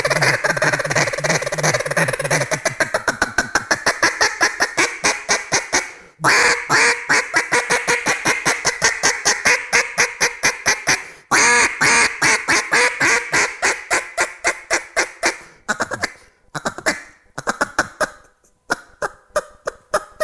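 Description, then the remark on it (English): A person imitates a mallard hen's quack using the throat and the back of the mouth, producing long, rapid runs of loud quacks with a few brief pauses between bursts and no talking. “So you're going on record right now saying that I sound somewhat like a mallard hen?”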